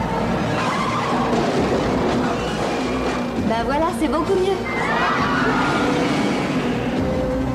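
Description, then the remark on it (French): Loud car action in a movie trailer with tires squealing in rising and falling skids midway, engines roaring underneath, while people talk over the dense, continuous racket. “je sais pas combien de voitures ils ont ah, depuis le début de la bande-annonce.”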